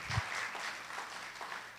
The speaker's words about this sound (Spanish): Denle un fuerte aplauso a nuestro Dios.